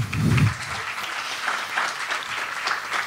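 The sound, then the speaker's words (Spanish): An audience applauds Dorite Ellas after a Bible reading, a dense, steady patter of many hands clapping that holds at an even, moderate level for a few seconds, with a brief low thump at the start and no voices. “Un aplauso para Dorite Ellas, por favor.”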